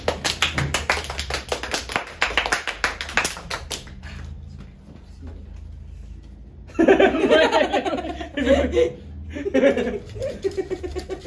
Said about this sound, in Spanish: ¡Haga un aplauso!